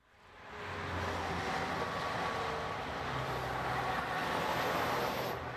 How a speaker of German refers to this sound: Schau mal da unten, da ist wieder was los. Die Stadt ist voll. Überall stehen Autos. Und der Lärm.